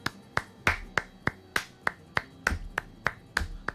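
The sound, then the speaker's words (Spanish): Sharp, crisp hand claps beat out a steady bulería rhythm in three, with every third clap accented. About a dozen claps in under four seconds, alone with no voices. “Bulerías a tres, como digamos, mm, como le explico yo a mis alumnos, que va aquí.”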